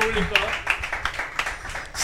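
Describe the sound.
An audience at a comedy show applauding a comedian, with a steady patter of many overlapping claps filling the short stretch, mixed with some low background voices.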